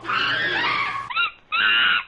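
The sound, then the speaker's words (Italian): Two mascot monkeys screech loudly while chasing away seagulls: one long harsh wail, then a brief squeal and another sustained screech, with no talking. “Ah, le nostre due scimmie mascotte sono davvero efficienti. Hanno scacciato i gabbiani.”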